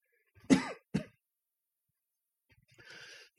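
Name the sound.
coughing and throat clearing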